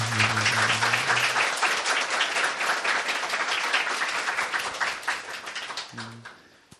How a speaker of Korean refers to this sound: 일단 용기 내셔서 예, 나오셔서 다시 한 박수 좀 부탁드릴게요.